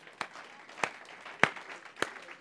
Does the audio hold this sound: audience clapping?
yes